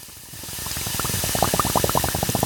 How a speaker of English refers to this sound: we have a series of hanging sheets like blinds or curtains, one next to the other. We take the water from the first chamber and we run it through a series of nozzles. And we simply spray or drip the water through these nozzles onto these sheets.